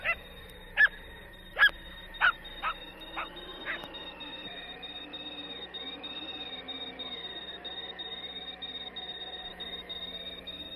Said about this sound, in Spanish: Grillos, grillos y el olor inmenso de la gobernadora.